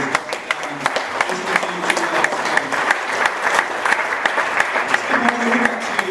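A sustained burst of audience applause, dense overlapping claps from a sizable crowd, steady and fairly loud throughout with no one speaking over it.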